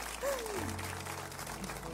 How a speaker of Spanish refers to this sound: ¿Quieren aplaudir? Sí, démosle.